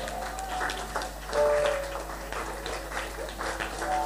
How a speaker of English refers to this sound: Well, clap for yourself then.